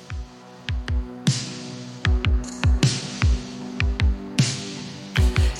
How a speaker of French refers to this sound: des musiques personnalisées générées en quelques clics à partir d'un prompt, soit une demande précise. Par exemple, si vous tapez dans le moteur de recherche euh, New Waves des années 80, vous obtenez instantanément ce morceau